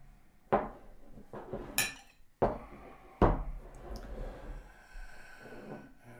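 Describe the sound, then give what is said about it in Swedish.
Beer being poured into glasses for the brewmaster at a brewery as a tradition, with a few sharp clinks and knocks of glass and bottle, followed by a soft, steady fizzing rush. No one speaks. “Får jag hälla upp åt bryggmästaren?”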